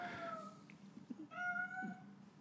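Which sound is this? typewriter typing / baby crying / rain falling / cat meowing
cat meowing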